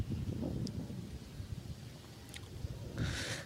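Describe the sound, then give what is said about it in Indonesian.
Steady outdoor wind on a sunny morning, rumbling low and continuous, buffeting the microphone, with a brief hiss of rustling near the end and no voices. “gue bikin di pagi hari ini yang cerah dengan suasana angin dan beberapa batang rokok”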